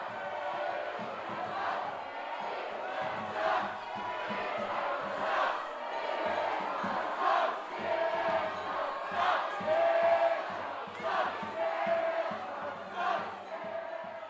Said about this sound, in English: If you hear people chanting sucks after Snitchcock, don't worry. There was no bad sportsmanship going on. It was Snitchcock team members who were chanting sucks after their name, as a joke. In fact, they chanted sucks after any chant, really.